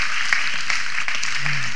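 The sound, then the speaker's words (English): An audience applauds together in the morning, clapping for Jesus, a dense, steady wash of many hands clapping at once, fairly loud and continuous for the whole short stretch, with a faint voice briefly audible underneath. “Now give him a hand clap this morning because that's who he is in your life.”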